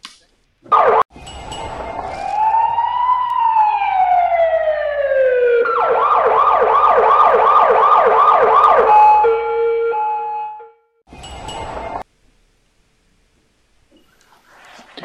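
A loud emergency siren sound effect: a rising wail that switches into a rapid warbling yelp and ends on a steady tone, framed by short bursts of noise at the start and near the end.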